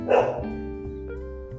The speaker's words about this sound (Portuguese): O cachorro que vocês estão ouvindo é o cachorro do meu irmão, porque eu me mudei e ele meio que tem um canil, então acostume-se com isso.